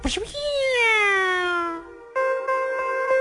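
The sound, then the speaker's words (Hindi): A voice imitates the gunshot sound effect of Indian films: a sharp burst that trails into a long, falling ricochet-like whine, then a steady buzzing tone pulsing a few times. “और भारतीय फिल्मों में क्या होता था गोली चलने के लिए”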